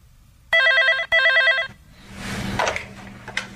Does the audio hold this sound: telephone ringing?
yes